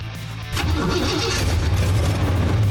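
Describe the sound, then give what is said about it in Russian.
An Impala car's engine catches with a sudden roar and keeps running loudly, its low rumble steady and rising slightly as the vehicle pulls away, with no voices. “Автомобиль «Призрак» мчался без остановки по дорогам Европы на север, в заснеженную Норвегию.”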